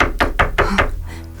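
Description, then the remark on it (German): Four firm knocks on a door in a steady, evenly spaced rhythm, fairly loud, followed by a quiet low hum as the sound dies away. “Es hat an der Tür geklopft.”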